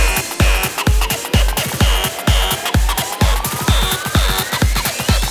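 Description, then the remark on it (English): Loud electronic dance music as more distortion is added: heavy, gritty distortion, a pounding kick on a steady fast pulse, harsh buzzing synths and a rising sweep climbing through the mix, with no voices. “100 more distortion.”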